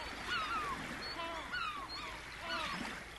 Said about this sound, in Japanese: 日本海の海は穏やかに篠田くんを迎えてくれた。海鳥の声が彼の恋を祝っているように聞こえた